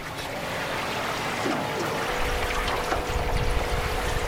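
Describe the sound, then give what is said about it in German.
A steady engine drone runs throughout, layered with rushing, splashing water, as a narrow motorboat travels at speed along the Rio Tapachos in the Amazon region. Nobody speaks. “Ich fahre in einem schmalen Motorboot über den Rio Tapachos.”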